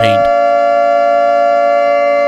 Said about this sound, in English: No, I am trying, and you you putting on this alarm alarms our listeners and makes them worried. Stop it. It's the signal to pay attention